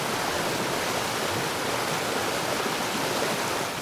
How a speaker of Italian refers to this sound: A Sant'Anna non c'è mai veramente silenzio. Il canto dell'acqua del torrente, che dà il nome anche alla valle, fa da sottofondo giorno e notte.